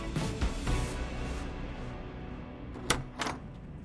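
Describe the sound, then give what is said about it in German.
A door opens amid a soft rustling hiss, with a few low thumps early on and two sharp latch-like clicks close together near the end, as Donald Peterson, chairman of the Ford Motor Company, enters; no one speaks. “Die Tür öffnet sich und ein großer Amerikaner mit dünnem Haar tritt ein.”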